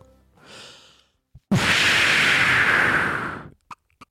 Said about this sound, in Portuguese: Bombinha de fumo.